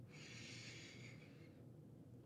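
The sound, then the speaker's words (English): A single deep inhale drawn through the nose during a meditation breathing exercise, a steady airy hiss lasting over a second before fading out, fairly quiet against a low background hum. “So, so inhale again.”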